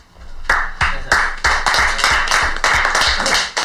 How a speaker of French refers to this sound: Ah, vous applaudissez pourquoi exactement là bah Pour ce que j'ai dit, c'était super.